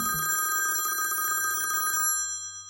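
A telephone bell rings with a rapid metallic trill for about two seconds, loud, then cuts off abruptly, leaving a faint low hum.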